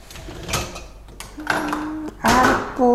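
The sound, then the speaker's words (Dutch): Many glasses and dishes clink and clatter during washing up, with sharp knocks and a few sustained ringing tones from glass, plus a brief hum at the end. “Er zijn eigenlijk heel veel glazen, dus ik ben blij dat ik even de afwas doe.”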